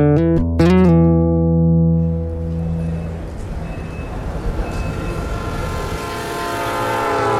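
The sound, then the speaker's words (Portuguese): A train horn sounds loudly at the start with a couple of sharp metallic clanks, then a steady rumbling roar of a train rolling along the rails on a long journey back to Moscow fills the rest, continuous. “Numa breve parada, durante a longa viagem de trem, de volta a Moscou, consegui mandar um telegrama para Luba.”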